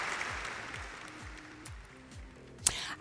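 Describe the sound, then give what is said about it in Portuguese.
A studio audience claps steadily, a dense, continuous patter of many hands at moderate volume, with faint low tones running underneath and one sharp louder crack near the end. “Palmas para elas.”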